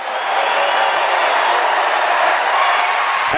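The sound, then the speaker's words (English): A basketball crowd cheers and shouts in one loud, steady roar of many voices as the opponent shoots two free throws, holding without a break for about three seconds, then cutting off abruptly. “We'll let the crowd tell you what happens.”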